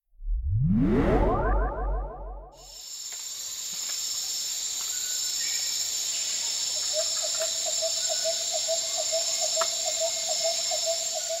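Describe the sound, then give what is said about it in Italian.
Tropical rainforest ambience in Borneo, the large Southeast Asian island divided among Malaysia, Brunei and Indonesia: a rising, pulsing sweep opens into a dense, steady wall of shrill insect buzzing, with a repeating rhythmic call joining partway through. No voices. “Quello che avete appena sentito è il suono della foresta tropicale nel Borneo, la eh, grande isola nel sud-est asiatico divisa tra Malesia, Brunei e Indonesia.”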